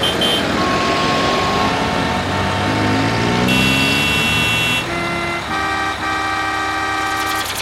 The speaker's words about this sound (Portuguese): Hora do Rush na cidade.